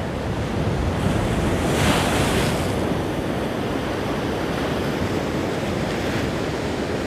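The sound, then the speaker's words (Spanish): Steady ocean surf rolls and washes continuously, a broad rushing roar with a brief swell of a breaking wave early on, mixed with some wind buffeting; no one speaks. “Y ahora sí, mientras escuchas de fondo las olas del mar.”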